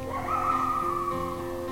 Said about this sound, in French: Au loin, on entend les coyotes qui hurlent sur la vallée.